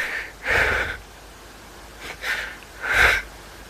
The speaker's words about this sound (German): Er ist sichtlich mitgenommen. Es klingt, als würde er weinen.